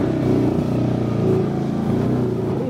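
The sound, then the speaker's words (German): Two motorcycle taxi engines drone loudly, holding a steady, buzzing pitch with slight rises as they rev, running continuously throughout with no voices, as they carry riders up a rough road full of potholes and rocks into the Sierra Nevada. “Zwei Motorradtaxis bringen uns so weit wie möglich nach oben in die Sierra Nevada.”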